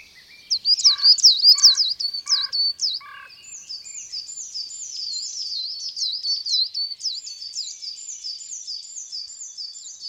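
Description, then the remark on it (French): A flock of chickadees calls continuously, high thin chirps and rapid tinkling notes overlapping from several birds, fairly loud, with a few lower buzzy notes near the start. “Parfois, d'autres oiseaux sont attirés par le rassemblement, peut-être en réaction à un changement de tonalité dans le fil d'information acoustique des mésanges.”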